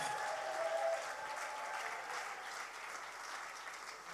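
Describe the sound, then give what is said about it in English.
Steady applause from an audience at a church service welcoming a speaker to the stage, a dense wash of many hands clapping at fairly even volume, with no talking. “So, why don't you put your hands together and welcome”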